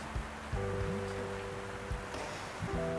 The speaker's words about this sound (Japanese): すごい雨の音聞こえますか土砂降りなんですよ本当にあの今ね雨が降るのが分かるアプリが入っててそれでチェックしてます